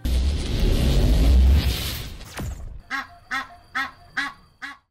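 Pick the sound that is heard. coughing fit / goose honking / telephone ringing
goose honking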